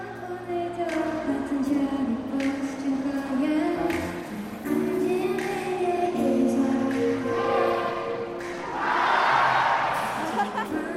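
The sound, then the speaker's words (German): A large concert audience at a rock festival sings along to a female singing duo's soft melodies in sustained, wavering unison, voices blending into a continuous melodic swell that grows brighter and louder near the end. “Zu ihren weichen Melodien singt das ganze Publikum mit.”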